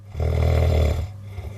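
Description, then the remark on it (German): A single loud nasal snore, a low rumbling inhale lasting about a second before trailing off into quiet breathing, with no talking. “Sind Sie eher so der nasale Schnarcher?”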